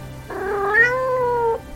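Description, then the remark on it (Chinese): A single drawn-out cat meow lasting over a second, with a rising then gently falling pitch and clear harmonic tone, heard on its own against a faint low hum. “两只猫咪雀跃地享受美景”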